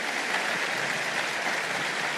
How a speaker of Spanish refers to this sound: Amén y amén. Un aplauso al Señor.